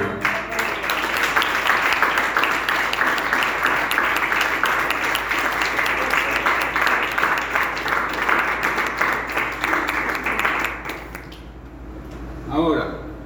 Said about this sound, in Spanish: Dele un aplauso por favor